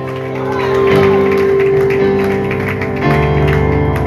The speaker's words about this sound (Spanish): Denle un fuerte aplauso al Rey de Gloria.